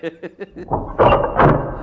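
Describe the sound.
A door opens with a rattling scrape and a couple of dull knocks, right after a brief bit of speech.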